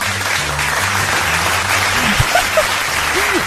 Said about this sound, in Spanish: Un fuerte aplauso, señoras y señores.